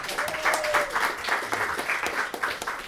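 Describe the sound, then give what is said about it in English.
An audience at a readings event claps steadily for a few seconds during an announcement of upcoming readers, a dense, even patter of many hands with no voices on top, holding at a fairly constant level throughout. “You could clap if you want.”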